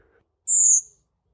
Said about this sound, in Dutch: We gaan nu, nu nog even één keer luisteren naar dit prachtige geluid van de Koperwiek.